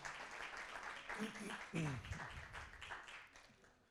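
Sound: audience applause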